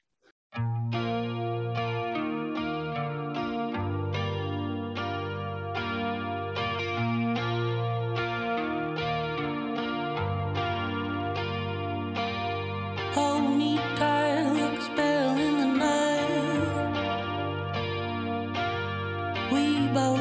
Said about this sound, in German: ein weiteres Lied, das bei mir momentan in der Dauerschlaufe läuft, ist … von …